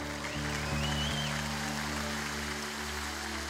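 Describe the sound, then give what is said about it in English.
A church audience claps steadily in a dense, continuous wash of applause and shouts to the Lord for their pastor, with a brief high whoop early on and low sustained tones droning underneath throughout. “In Jesus' name, and everybody that loves your pastor, give a good clap and a shout to the Lord.”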